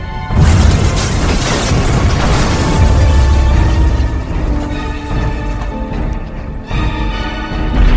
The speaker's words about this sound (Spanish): y municipios cercanos, seguidos por una agresiva explosión de gases, piedras y sobre todo cenizas inundaban las calles. Muchas casas no resistieron.